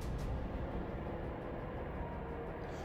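A dragon's deep, rumbling roar with a growling undertone, steady and continuous for a few seconds, heavy in the low end and sounding somewhat distant, with no voices present.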